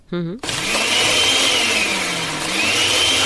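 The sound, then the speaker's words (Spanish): A brief harmonic tone at the start gives way to a loud, steady blender motor whirring continuously, its pitch wavering slightly as it runs. “A ver, prende la licuadora y la mujer...”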